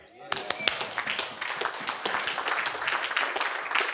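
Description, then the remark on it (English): A crowd claps together at a preacher's request, a dense burst of many hands that starts abruptly and keeps going at a steady, fairly loud level, with some voices mixed in underneath. “Come on, are you with me? Give me a hand clap.”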